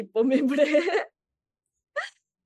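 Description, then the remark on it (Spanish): A drawn-out voiced sound, like a groan or strained vocalization, is followed after a pause by a single short, sharp hiccup, both fairly quiet. “ah, yo es hipo”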